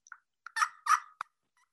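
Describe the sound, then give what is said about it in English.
A slate-on-box turkey friction call, a Tiny Coiner made by A.M. Coiner of Waynesboro, Virginia in the 1960s, scraped out in a short, raspy series of yelps: a few quick clucks, two louder drawn-out rasping notes, then a sharp short yelp, with no talking. “It's a little slate on top of a box, but there, the main thing, and listen to this.”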